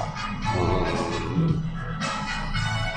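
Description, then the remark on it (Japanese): Upbeat 1980s Western pop music plays steadily over a shop's sound system, full and continuous at a moderate level, with no one talking over it. “今日もお店の音楽が軽快に 80s が流れてますけど、うん、洋楽 80s が、うん、”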